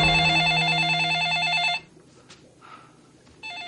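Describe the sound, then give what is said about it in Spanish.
A telephone rings loudly with a warbling electronic trill for nearly two seconds, falls silent briefly, then starts ringing again at the end. “El teléfono suena.”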